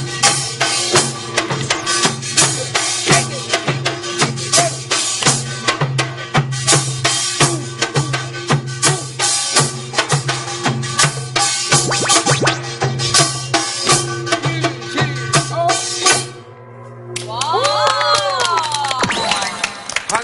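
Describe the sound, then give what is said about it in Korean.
Members of a Korean traditional percussion troupe play loud, dense driving rhythms of gongs and drums with bright metallic clanging, pausing briefly near the end before a final burst with rising whoops and cheers. “지금 입장 단어로 배운 거 혹시 그 단원분들이 한번 치시는 거를 연주하는 걸 한번 들어보세요.”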